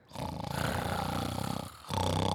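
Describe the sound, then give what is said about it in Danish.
A child's voice imitates snoring with a rough, growly, drawn-out rasp, then briefly pauses before a second snort begins. The sound is fairly loud, with no other sounds. “Jeg kan også snorke.”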